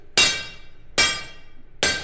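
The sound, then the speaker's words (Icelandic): Three loud, ringing metallic strikes land at a steady pace about once every 0.8 seconds, each bright clang decaying quickly, as a small sledgehammer pounds hot iron on an anvil at a forge with great force. “hamrar játnið af miklum krafti mikill er staðfestu og öryggi”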